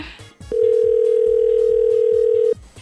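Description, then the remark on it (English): A steady telephone dial tone as radio station Move 100 places an outgoing call to a contest player. It holds one constant mid-low pitch for about two seconds, loud and unbroken, then cuts off abruptly. Faint background sounds run beneath it. “Best time of the day when we get to call you, tell you the good news, make you laugh, make you cry, make you scream.”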